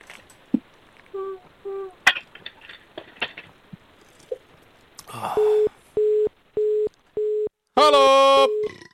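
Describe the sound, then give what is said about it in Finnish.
A phone line tone after a caller's call drops during a call-in broadcast: four loud, evenly spaced beeps of a steady low pitch, preceded by faint line clicks and small beeps, and followed by a brief harsh burst of noise. “Sinne näytti menevän soittaja, ilmeisesti ongelmia puhelinlinjojen kanssa.”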